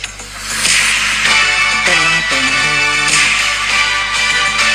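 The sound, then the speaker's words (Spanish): Several sharp whip cracks land at a steady rhythm over a bright, sustained musical jingle, each one a loud snapping burst standing out above the music. “La actualidad a latigazos. El informe semanal de Estamos Vivas.”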